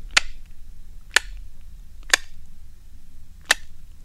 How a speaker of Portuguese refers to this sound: Isto são os cliques da colocação ecolocação é assim que os cachalotes procuram as, as lulas, por exemplo, que é um dos alimentos.